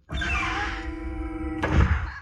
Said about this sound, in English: and the chickens climbed and fluttered up the stairway to the gallery and proceeded through the metal door that closed behind them.